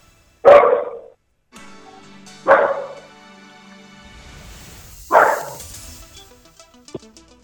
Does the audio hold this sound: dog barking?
yes